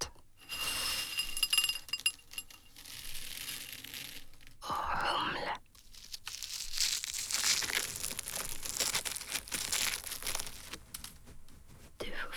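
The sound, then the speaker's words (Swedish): Dry malt grains, an ingredient of beer, rustle and crunch, a steady granular crackling that pauses briefly about halfway through, then resumes as the kernels are stirred and squeezed. “Malt.”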